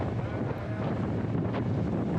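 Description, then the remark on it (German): Strong wind at sea roars steadily across the microphone, a dense, buffeting rumble with a faint wash of water and a boat engine beneath, loud and continuous throughout, as a boat heads to the Cordouan lighthouse. “Hochkonzentriert gegen den Wind.”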